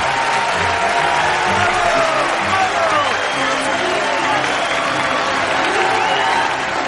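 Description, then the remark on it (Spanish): A theater audience bursts into sustained, steady applause, amazed as a magician appears seated in an armchair on stage, a dense wash of clapping with murmured voices and faint cheers mixed in throughout. “El público vuelve a aplaudir maravillado.”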